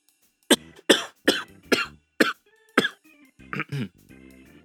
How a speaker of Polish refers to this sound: I teraz przerwa na kaszlnięcie.